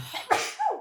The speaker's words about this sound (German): Oh, Gesundheit. Niesen.